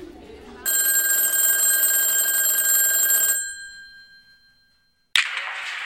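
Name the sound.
telephone ringing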